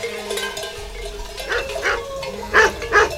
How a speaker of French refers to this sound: Wow, wow, c'est qui celui-là, là, Bah, c'est le chien. Ignore-le. Mais. Qu'est-ce qu'il a à nous tourner autour comme ça Il est dingue Il nous rassemble.